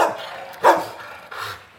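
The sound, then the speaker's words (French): Several dogs bark in the kennel boxes of an animal shelter by its courtyard, with one sharp, loud bark standing out midway and other barks overlapping, no one speaking. “Donc là, on arrive dans la cour, justement, où sont euh, installés tous nos parcs de détente. Et nous avons également des chiens”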